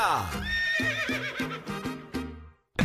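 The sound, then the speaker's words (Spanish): A horse lets out a loud whinny lasting a few seconds, its shrill, quavering neigh wavering and trailing off before a brief pause and a sharp final burst. “Con las orejitas del caballo”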